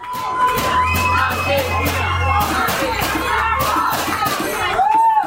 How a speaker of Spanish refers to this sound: Observo que los fanáticos argentinos se dividen en dos. Los que no paran de gritar e inician cada porra a favor de su selección y los que la apoyan desde un silencio más ecuánime.